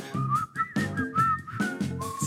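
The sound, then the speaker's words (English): A person whistles a wavering, continuous melody, the pitch gliding between notes, while a rhythmic song with pulsing low tones plays underneath. “hard to tell if that's me whistling or the song.”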